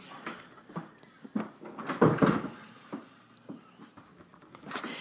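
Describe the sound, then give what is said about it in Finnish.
Soft footsteps and shuffling lead up to a door being pushed shut with a muffled thud midway, followed by a few light knocks and rustles; no one speaks. “Ootas vähän, mä laitan oven kiinni.”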